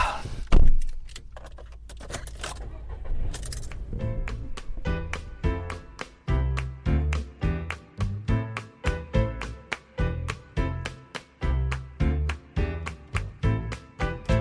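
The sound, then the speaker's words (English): Keys jangle and a car door thuds shut as someone gets into their car, followed by a few seconds of rustling movement before a steady, rhythmic piece of music starts and carries on to the end. “I think I'm going to um, get in my car and get home.”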